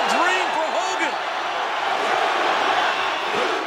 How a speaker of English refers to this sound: Here we go. Listen to the crowd, man.